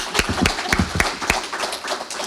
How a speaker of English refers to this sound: We are honored to eat pancakes with Calgary's mayor. Jyoti Gondek. A round of applause.